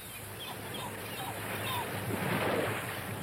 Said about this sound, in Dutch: Natuurlijk begint dat met golven.